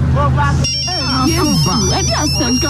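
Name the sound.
phone ringtone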